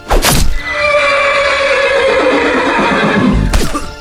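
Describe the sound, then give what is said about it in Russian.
A horse, struck and mortally wounded by a thrown spear, lets out a loud, sustained neigh, its shrill whinny wavering for several seconds, framed by short bursts of rough noise at the start and end. “Острие вонзается в лошадь, и несчастное животное, смертельно раненое, вынуждает Ричарда прекратить погоню”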